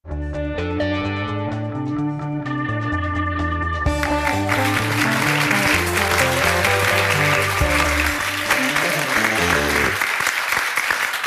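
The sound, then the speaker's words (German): Music plays alone at first, then a live audience at the Maschinenraum Momentum conference bursts into loud, sustained applause over it, the dense clapping continuing steadily to the end as the music fades out. “Wow, was für ein Publikum heute”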